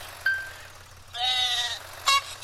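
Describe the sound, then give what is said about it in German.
A sheep bleats in a long wavering cry in a mobile game, bracketed by short synthetic chime-like tones, all sounding clean like game audio. Nobody speaks. “Hauptsache die Schafe sind im Trockenen hier.”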